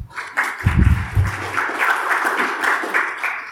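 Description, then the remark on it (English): Steady audience applause for the event's organizers, a dense wash of many hands clapping at once, fairly loud and sustained, with a brief low thump near the start and no one speaking over it. “I think they deserve a round of applause first.”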